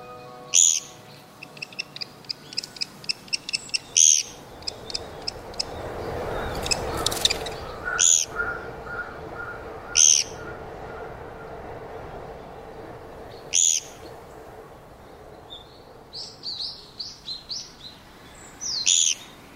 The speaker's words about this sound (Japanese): ギーキュッキュッキュッというこの声コゲラですコゲラは全長およそ15センチスズメくらいの大きさの鳥です日本に生息するキツツキの仲間では最も小さく英語名もジャパニーズピグミーウッドペッカー